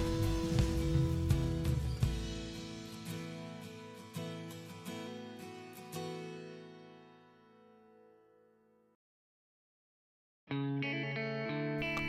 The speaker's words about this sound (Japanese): そろそろエンディングを流したいな、ということで、あと30秒後くらいに流します。